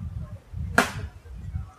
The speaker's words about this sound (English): we have a gentleman chopping wood across the street.